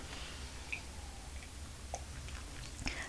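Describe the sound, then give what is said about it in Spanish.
Quiet mouth sounds of someone taking the first morning sips of freshly served hot, unsweetened coffee: a few soft slurps and swallowing clicks spaced out over a few seconds, with no talking. “Yo estoy aquí con un café caliente, lo necesito hoy bien caliente, ya servido, para darme el primer buchito de este 20 de diciembre de 2023.”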